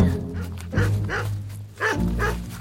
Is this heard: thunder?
no